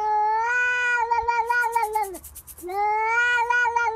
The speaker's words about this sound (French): Le chat des voisins qui miaule à la fenêtre parce qu'il veut rentrer chez toi, par exemple.